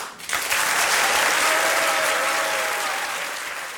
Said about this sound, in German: Der nächste Applaus gehört Ihnen. Zeigen Sie sich jetzt also mal, was Sie von sich halten. Bitte schön.